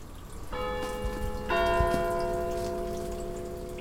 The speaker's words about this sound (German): Die ersten vier Jahre lang hast du den Klang einer Tessiner Kirchenglocke gehört.